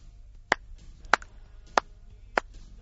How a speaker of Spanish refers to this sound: es el sonido de unas palmadas grabado con una sencilla cámara anecoica en condiciones asépticas, sin eco.